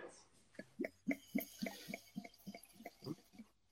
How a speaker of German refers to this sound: wenn du, wenn du so ein Wasser einschenkst, so ein, so ein Sparkling-Wasser, dann, ja. ähm, dann schütte mal das Wasser nicht so von oben direkt rein, sondern dreh es ein bisschen und lass es so reinlaufen